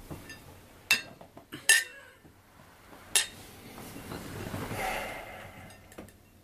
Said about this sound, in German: So, da sind wir wieder zurück und würden sagen, wir stoßen jetzt mal mit unserem frischen Glas, eiskalt, mit Olive an.